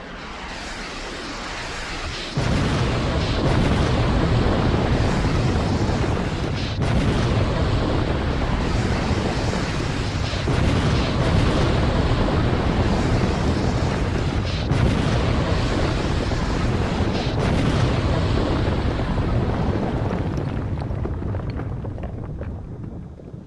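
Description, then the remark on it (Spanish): Heavy, continuous bombardment of explosions and artillery fire, a dense rumbling barrage that starts abruptly after a quiet moment and roars loudly for about twenty seconds before tapering slightly at the end. “se ha desatado, se ha desatado un ataque antibalístico contra el presidente del Partido Popular, José Luis Dalmao.”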